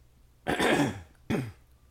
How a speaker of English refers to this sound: I haven't. I haven't had a podcast cough in several no, episodes.